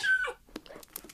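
small dog whimpering

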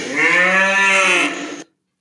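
cow mooing

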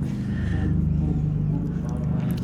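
helicopter flying overhead

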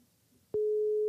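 telephone ringing tone

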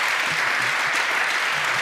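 applause

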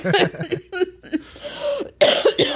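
cough

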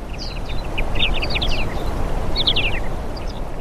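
birds chirping

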